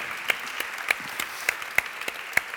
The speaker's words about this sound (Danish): Det klapper vi lige af.